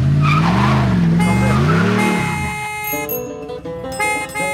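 A short, loud traffic jingle opens with car tires screeching in a wavering skid, then shifts into bright synth tones and a rhythmic musical tag, with no voices.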